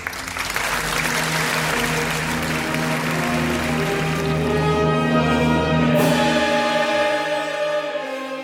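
A crowd applauds steadily and fairly loudly while sustained musical tones swell underneath, gradually taking over as the clapping continues throughout.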